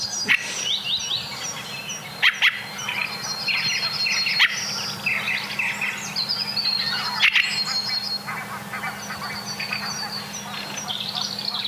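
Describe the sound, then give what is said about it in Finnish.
A flock of geese honks and chatters continuously in the background, their overlapping calls forming a busy layered chorus, with a few sharp clicks or knocks. “Hanhet pajattaa siellä taustalla.”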